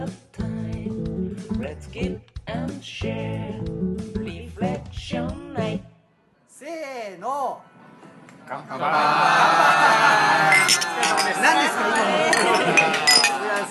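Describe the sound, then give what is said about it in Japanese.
Glasses clink together in a toast (kanpai), a bright flurry of overlapping chinks amid lively chatter, following a burst of music and a short spoken call. “せーの。乾杯。”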